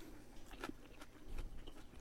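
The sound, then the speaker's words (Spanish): Someone chews a mouthful of salad made with hearts of palm, sweet herb, chopped squash, tomato and chives, with several crisp, crunchy bites spaced irregularly over a couple of seconds and no talking. “Y pues bueno, pues buen provecho porque me voy a poner otro poquito porque ya sin mucha hambre.”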